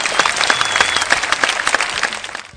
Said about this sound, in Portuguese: Palmas para o cast do Aronofsky!